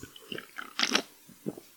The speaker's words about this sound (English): well, hold on, everyone, wait, wait, take a sip.